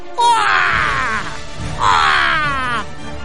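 Two loud, harsh caws ring out one after the other, raspy and drawn-out like crows calling, with a brief pause between them; hundreds of thousands of ababil birds flying and circling over the city of Mecca.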